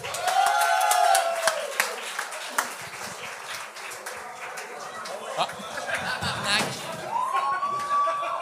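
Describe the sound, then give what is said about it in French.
A crowd bursts into steady, dense applause with cheering voices and a couple of sharp rising whistles as a comedy duo is called up to the stage. The clapping holds loud and continuous throughout. “Faites un maximum de bruit pour Caramel!”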